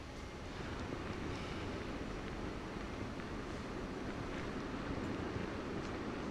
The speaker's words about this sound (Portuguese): Olha só como é que tá agitado esse mar aqui onde nós estamos, no bairro do Rio Vermelho.